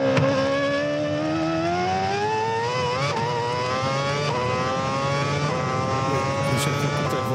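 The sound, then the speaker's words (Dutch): A Renault F1-team race car engine, driven by Nico Hulkenberg in a demonstration at Assen, screams loudly and continuously, its high, whining pitch climbing steadily and dipping briefly at a couple of gear shifts before rising again. No one speaks. “De afgelopen editie gaf eh, Nico Hulkenberg een demonstratie van het Renault F1-team. Ja, We hebben daar wat geluid van.”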